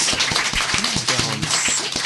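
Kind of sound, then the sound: crowd, audience applause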